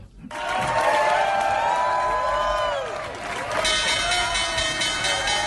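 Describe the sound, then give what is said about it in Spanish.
The closing bell of the New York Stock Exchange on Wall Street rings loudly and continuously for several seconds while a crowd claps and cheers around it, with indistinct voices rising and falling in the background. “escuchan la campana de Wall Street desde el edificio de la Bolsa de Valores de Nueva York, donde se luce hoy la bandera de Colombia junto a la de los Estados Unidos.”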